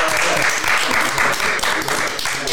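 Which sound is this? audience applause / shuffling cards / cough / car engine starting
audience applause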